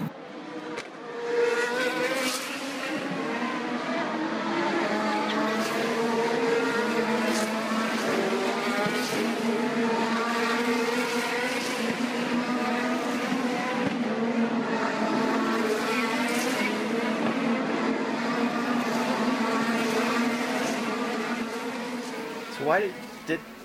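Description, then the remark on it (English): Race car engines howl continuously for over twenty seconds, several overlapping buzzy whines rising and falling in pitch as the cars pass, loud and steady throughout. “we'll settle in, watch a bit of this racing”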